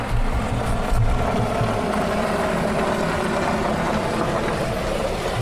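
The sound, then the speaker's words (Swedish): A car drives by with a steady, low engine rumble and broad road noise that stays fairly even in loudness for several seconds, with no voices. “En bil till.”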